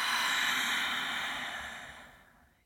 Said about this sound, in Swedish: Ett andetag. Ett kontrollerat andetag.